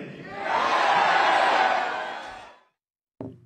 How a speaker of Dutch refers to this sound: Ja, dat lijkt me toch een ja van het publiek.